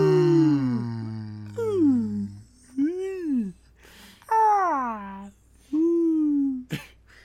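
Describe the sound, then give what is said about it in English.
A person imitates whale calls with a series of long, moaning vocal tones that swoop up and down, about five drawn-out phrases, fairly loud, separated by short breathy pauses. “I don't like are. their noises.”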